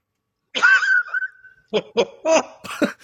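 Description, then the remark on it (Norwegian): A parrot mimics its owner's laughter: one drawn-out, shrill laugh, then a quick run of four or five choppy 'ha' bursts, fairly loud, with no one talking. “Men det vi òg må anerkjenne, er jo at én ting er å bestille pull pork, men andre er at den har lært lattera til eieren.”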